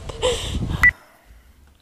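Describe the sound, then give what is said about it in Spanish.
A short burst of electronic telephone tones, buzzy and harmonic, ending in a brief high beep, then quiet low rumble as the line waits. “Ahora sí, ahora sí, contesta, contesta, contesta, por favor, contesta.”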